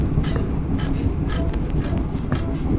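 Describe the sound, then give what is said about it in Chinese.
A Chu-Kuang Express train heading to Nan'ao, Taiwan, suddenly slows as it rolls along the tracks with a steady, loud low rumble, broken by occasional light clicks and rattles from the wheels and carriage. No one speaks. “哎，火车怎么突然慢下来？”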